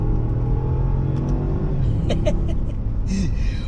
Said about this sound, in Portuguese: Você, não, você, vai, você pode querer comprar porque, porque o carro é alto, porque o carro é bonito, porque o carro tem presença, mas você só vai pegar V8 Supercharger por causa disso aqui, ó. Ó.